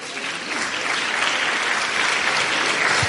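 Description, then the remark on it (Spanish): A crowd applauds steadily, a dense wash of many hands clapping at an even, sustained level for the full few seconds, with no voices standing out, applauding the winner of a prize draw. “Muy bien, enhorabuena, un aplauso.”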